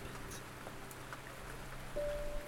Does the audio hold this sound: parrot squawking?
no